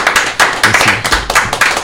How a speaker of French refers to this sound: Bah voilà, je pense qu'on peut applaudir, effectivement.